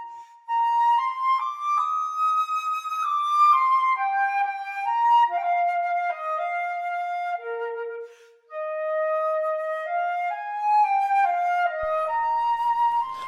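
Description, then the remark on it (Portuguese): A solo flute plays a flowing, lyrical melody in the mid-high register, its notes smooth and sustained with a brief pause before the phrase resumes, clear with no accompaniment or voices. “Nada melhor do que esta bela melodia da ópera Carmen, do francês Georges Bizet, para nos introduzir ao naipe das madeiras, começando pelo”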